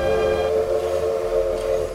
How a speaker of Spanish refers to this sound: Vía Barcelona, por la frontera de Porbou... entró el convoy de ferrocarril que transportaría a la dama de Elche hasta la estación de Atocha de Madrid. Era el 8 de febrero de 1941.